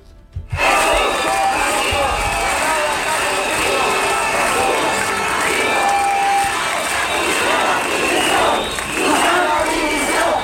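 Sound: protest crowd chanting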